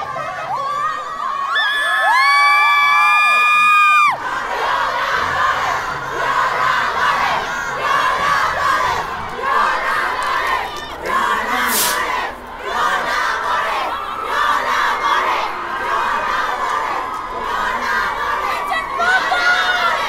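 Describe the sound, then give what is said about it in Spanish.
A dense crowd of women protesters shouts and chants slogans together while throwing purple glitter at the faces of policewomen, loud, opening with a rising, sustained collective cry before settling into continuous overlapping yelling and chanting. “Las manifestantes cantaban consignas y aventaban diamantina morada a la cara de las mujeres policías.”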